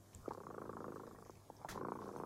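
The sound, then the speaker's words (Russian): A cat purrs steadily, a soft continuous rumble with a gentle rhythmic pulse and no voices over it; it is Kot Dremota (the Sleepy Cat) singing his bedtime song. “Сейчас слышите? Кот Дремота запел свою песенку.”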